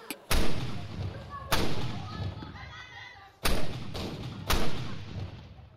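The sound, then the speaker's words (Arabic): Five sharp, loud blasts from a packed firecracker 'cannon', held by a rope and slammed against a wall at the Ramadan iftar signal, burst out at irregular intervals, each cracking hard and trailing off in a ringing, echoey decay. “مدفع تحشي وتكبس وتكبس وتحشي لحد ما تيجي ساعة الصفر اللي انت مستنيها انت وتلاتين من صحاب الحتة ومع أول صوت طالع من الراديو بيقول مدفع الإفطار وكأنك أخدت أمر عسكري من هتلر ببدء الحرب العالمية الثالثة تمسك ذلك الشيء اللعين بالحبل وتخبطه في أقرب حيطة ليك”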